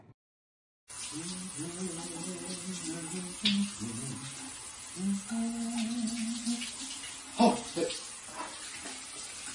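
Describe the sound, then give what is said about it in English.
A steady, hissing spray of running shower water starts abruptly and continues throughout, while a man talks over it. “Who doesn't love a, uh, a shower sip of a good glass of wine?”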